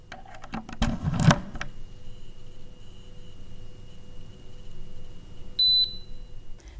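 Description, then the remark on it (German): An Assa Abloy eClick electronic key gives a single short, clear beep near the end as a user fetches new access permissions via the Click Connect app, preceded by a brief clattering click and a faint, steady high-pitched tone underneath. No one speaks. “Wenn sich ein Nutzer dann neue Zugangsberechtigungen für seinen eClick-Schlüssel abholt, klingt das so.”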